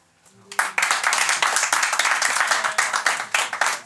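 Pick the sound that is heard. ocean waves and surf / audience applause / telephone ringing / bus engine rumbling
audience applause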